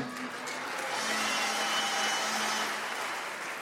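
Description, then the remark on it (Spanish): A dense, steady wash of applause from an audience in Venezuela, with the men urged to join in. It lasts a few seconds, loud and continuous, with no talking over it. “Aplauda porque si no se va a meter en un lío.”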